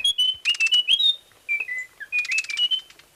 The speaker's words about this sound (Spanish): El trino del cucarachero de Munchique forma parte del Banco de Sonidos de Aves Colombianas, recopilado por el Instituto von Humboldt y la Universidad de Cornell.